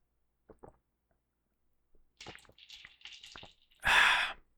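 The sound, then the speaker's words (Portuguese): A few small slurping sips of whisky and soft wet mouth sounds, followed by a loud, breathy exhale of satisfaction at the end. “Deixa eu tomar mais um golinho do, do meu whisky aqui.”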